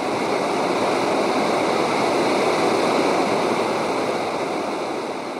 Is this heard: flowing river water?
yes